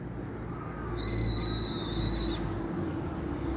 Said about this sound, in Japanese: これ、ひよどりの声ですね。来た来た来た、ひよどりくん。また来たかい これ、ひよどり。聞こえるかな